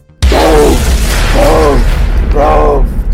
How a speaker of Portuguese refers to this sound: E vocês começam a ouvir explosões.